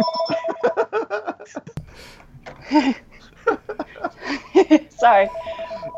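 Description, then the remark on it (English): A phone rings with steady, repeating electronic tones, fairly loud, at the start and again near the end, while people laugh and talk over it. “I don't know how to make the phone stop making sound.”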